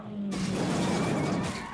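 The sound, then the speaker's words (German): Racing cars skid and spin out with a loud, harsh screech of tires that bursts in abruptly and holds steady for under two seconds, with no voices: Count von Trips's Ferrari and Jimmy Clark's green Lotus collide on a curve in the second lap of a race. “Die Wagen drehen sich.”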